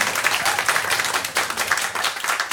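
Dense audience applause, many hands clapping in a steady, crackling wash that stays loud and even throughout, with no voices standing out.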